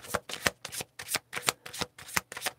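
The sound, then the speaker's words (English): A deck of tarot cards being shuffled in quick, repeated riffling bursts, fairly soft, with short pauses between each pass and no talking. “And I'm being guided to shuffle again.”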